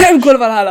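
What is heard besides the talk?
cough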